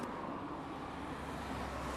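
A steady, fairly quiet wash of road traffic on a very busy road right in front of the sea, cars rumbling past continuously with no distinct individual pass-bys, and no one speaking.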